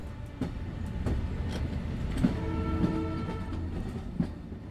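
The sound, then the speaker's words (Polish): A train rolls steadily along the rails with a deep continuous rumble, a faint hum above it, and occasional sharp clacks of wheels passing over track joints. No voices. “Jadąc pociągiem w stronę Krakowa, nie przypuszczał, że jego rysopis był już powszechnie znany”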